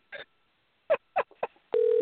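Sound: telephone dialing tones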